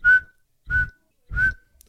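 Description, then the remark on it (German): A voice whistles three short, evenly spaced beeps at a steady, fairly high pitch, imitating an audible radar signal that reports via electric waves the approach of distant metal objects such as ships or trains. Each tone is loud and clear, with no talking. “Bewegung entfernter metallischer Gegenstände, Schiffe, Züge oder dergleichen, mittels elektrischer Wellen einem Beobachter durch Hör- oder sichtbare Signale gemeldet wird.”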